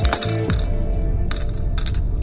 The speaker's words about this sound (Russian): Наши слушатели наверняка помнят те самые кассы. Синий ящичек принимал мелочь, после выкрутили ручку и отрывали нужное количество оплаченных билетов.